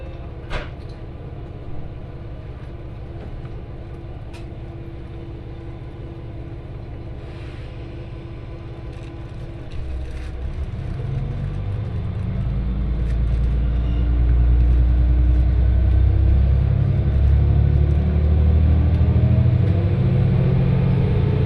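A local train on the Etsumi-Hoku Line, running from Hakariishi to Fukui, pulls away and gathers speed, its low engine rumble building from a steady idle into a louder, throbbing drone with rattling and clunking over the rails.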